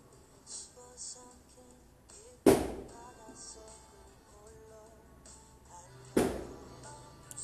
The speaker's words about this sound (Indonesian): ya iya, ada petasan jadi kan emang hari ini malam tahun baru